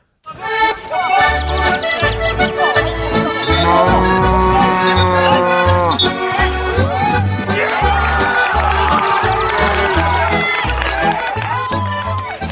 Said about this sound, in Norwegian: Er, er, det en okse eller en ku i, i jingeren der? Det er storf. Storf? Storf. Og det er? Storfe. Ja, storfe, ja.